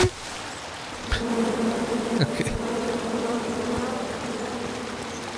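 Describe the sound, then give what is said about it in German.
A steady swarm of bees buzzes continuously in a video game, a droning hum with a few sharper clicks, while a person briefly laughs and speaks over it. “Kommt her, Bienen!”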